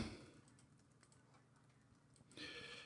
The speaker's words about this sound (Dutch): ik was even aan het typen in de Gamer Slack